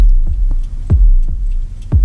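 A heartbeat sound effect: deep, muffled thumps in a slow, steady pulse, roughly one beat per second, over a constant low hum with no voices.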